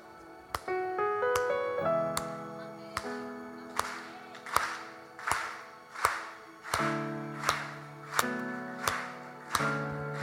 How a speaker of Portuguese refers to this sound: Por isso que ele diz: batam palmas todos os povos. Bota o seu instrumento para funcionar.